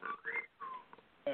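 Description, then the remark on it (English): A phone notification plays: a few quick chirping electronic tones in separate short bursts, fairly quiet and thin-sounding, with no one talking over it. “sorry, that was my phone.”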